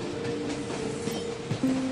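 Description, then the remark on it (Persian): A train rolls steadily along the rails, a continuous low rumble with faint rhythmic clatter and a brief tonal whine near the end, heard from a passenger seat inside the train at moderate volume. “یه دختری هم دقیقا صندلی کنار من توی قطار نشسته”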